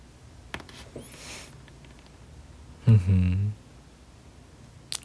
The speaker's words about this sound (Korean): 꼬르륵 들었, 들었구나. 배고프다.